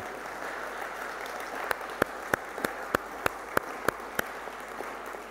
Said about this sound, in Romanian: Haideți să o aplaudăm.